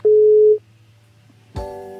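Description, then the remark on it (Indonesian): A telephone dialing tone as a call is placed to a doctor: one steady, clear beep for about half a second, a short quiet pause with faint hum, then a brighter, buzzier tone starts up. No one speaks. “Kita telepon langsung aja ya.”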